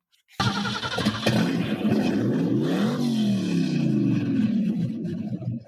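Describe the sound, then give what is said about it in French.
A De Tomaso Pantera sports car engine roars in abruptly and revs loudly, its pitch climbing to a peak and then sliding back down into a steady, throaty growl. No one speaks. “Avant de conclure, vous allez entendre le son de la Di Pantera.”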